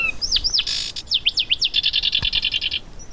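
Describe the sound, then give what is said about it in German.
A pair of wrens sing to each other with no talking: high swooping whistles and a buzzy burst, then a fast, even trill of bright notes for about a second, fairly loud. “Für mich war das natürlich jetzt schon ein Spektakel, so einen äh, Zaunkönig zu sehen und gleich mal so ein Paar, was sich gegenseitig angesungen hat, wissend, dass das einer der wenigen ist.”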